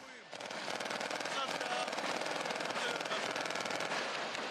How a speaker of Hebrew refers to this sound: וואו, כמה אתם יורים. אתם יורים כל כך הרבה, אתה יודע, אין לך בסרט שהוא נמשך כמעט שעה, אין לך עשר שניות רצופות בלי ירי או בלי פיצוצים.